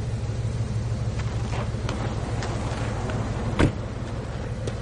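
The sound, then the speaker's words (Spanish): A steady low car-engine rumble with a few faint clicks and shuffles, then one sharp thud like a car door as someone gets out of the car, stopped beside the police station in Bemichi. No one speaks. “Baja del coche.”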